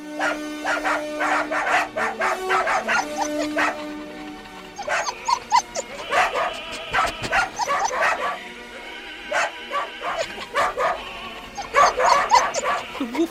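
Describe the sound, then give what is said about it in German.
Several dachshunds bark and yip excitedly in repeated bursts at a new horn, their voices rising into drawn-out howls, fairly loud, with the horn's steady tone sounding in the background. “samt Dackeltruppe sind nun bei der neuen Hupe ganz aus dem Häuschen.”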